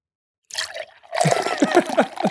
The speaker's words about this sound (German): Riesenblasen eigentlich aus dem Bier raus, oder? Hört ihr das? Hört, ihr das? Hört man sogar recht gut.